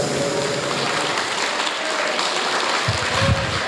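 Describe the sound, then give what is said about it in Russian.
Audience applause after a song: dense, steady clapping from a crowd fills the whole stretch, fairly loud, with a slight swell near the end and no voices. “Аплодисменты”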